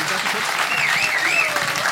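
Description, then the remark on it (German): A short burst of audience applause at a poetry slam show, steady dense clapping at an even level for about two seconds, with a faint whistle-like tone drifting over it. “Ja, äh, meine Damen, meine Herren, vielen lieben Dank für diesen äh, kurzen Applaus fürs gute Gefühl.”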